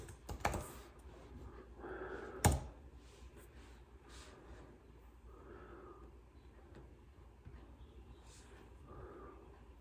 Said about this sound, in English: the way I'm typing, I can feel the batteries. I can feel it's like tough. It's, the batteries are getting lower.